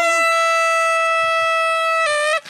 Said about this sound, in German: Yes! Mit Tröten. Mit Tröten. Sie sind wieder aufgetaucht. Ja, wie Toll. schön. Ich liebe Tröten.